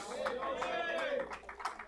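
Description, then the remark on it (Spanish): A standing church audience applauds the Lord after a sermon in scattered, steady claps while a voice speaks or calls out over them, the clapping sitting beneath the voice at a moderate level. “Póngase de pie, dele un fuerte aplauso al Señor.”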